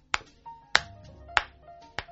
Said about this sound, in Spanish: Nos parece que cuando una fusta, digamos, la lengüeta pega de una manera, y vamos a verlo con el sonido